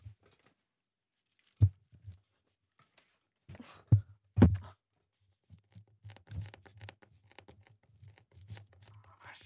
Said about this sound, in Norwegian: Hører du det knaser i ankelen min?